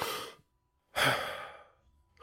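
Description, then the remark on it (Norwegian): Deep, slow breaths demonstrating an exercise of breathing deeply in and out: a breath out, a pause of silence, then a long forceful breath that fades away, followed by another starting. No talking. “Og en øvelse som uh, gir en del av de samme symptomene, det er hvis man tar og så puster sånn ordentlig dypt inn og ut i ca. et minutt.”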